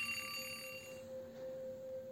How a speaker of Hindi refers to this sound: अचानक घड़ी का अलार्म बजने लगा और मृदुल ख्वाब से जाग गया